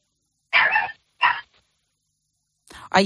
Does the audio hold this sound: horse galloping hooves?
no